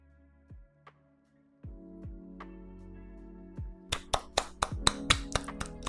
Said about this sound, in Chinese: 刚那个鼓，我被那个鼓吓到。你刚刚不是说要回来吗？然后那个鼓就突然变小声， 对对对对对对对， 超可怕。